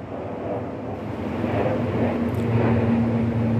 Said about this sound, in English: Okay, here's another plane.